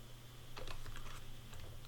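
A quick run of computer keyboard key presses, including the space bar pressed to stop playback: several soft clicks in an uneven cluster, then a few more scattered taps, over a steady low electrical hum with no talking.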